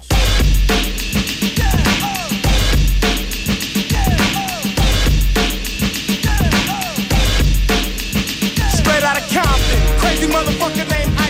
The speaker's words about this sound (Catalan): com aquest disc que escoltem de …, que als 17 anys em semblava soroll